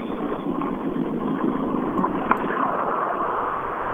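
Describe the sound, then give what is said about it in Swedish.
A rally car's engine chugs along in a steady, rough rumble as Skolberg's car comes down toward the TK car, with a brief louder knock partway through and no voices. “En Skolberg som kommer tuffandes ner mot, mot TK-bilen.”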